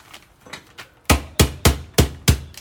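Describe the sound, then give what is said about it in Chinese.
A few soft taps, then five loud, sharp thuds in a steady rhythm as ginger is smashed on a board rather than chopped. No voices. “好，那我基本上我不切，我我我会这样子，这边 就只用敲的嘛。”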